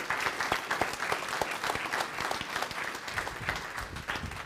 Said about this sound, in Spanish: Amén. denle un fuerte aplauso al Rey de Reyes.